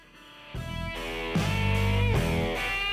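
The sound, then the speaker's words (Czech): Loud intro music with sustained synth-like chords over a heavy bass, shifting to a new chord roughly every second and building in volume, with no voices. “No konečně hudba podle mojeho gusta.”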